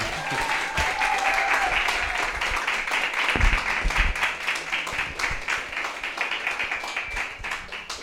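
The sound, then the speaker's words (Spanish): An audience applauds the Lord at a church gathering, many hands clapping in a dense, continuous patter that stays loud throughout, with a faint tonal hum briefly audible early on and no clear talk. “A ver, vamos a darle un aplauso más fuerte al Señor.”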